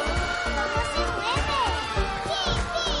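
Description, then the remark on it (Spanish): A loud, dense crowd cheers and shouts continuously during a dance contest as girls dance one by one, with many overlapping voices rising and falling and a steady thumping rhythm underneath. “¿Oís ese griterío?”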